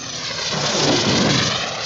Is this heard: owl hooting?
no